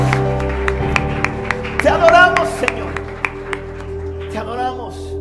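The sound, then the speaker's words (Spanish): An audience applauds loudly and raises a shout of victory for Jesus, sharp claps repeating in a steady rhythm over sustained held musical chords, with excited shouting voices rising above the music twice. “Yo quiero que levanten un fuerte aplauso y que levanten un grito de victoria bien fuerte”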